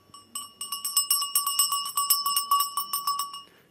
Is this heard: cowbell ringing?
yes